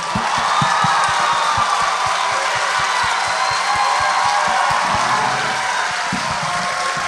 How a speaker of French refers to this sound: mesdames et messieurs, bonne main d'applaudissement pour Jay Temple et Thomas Levac.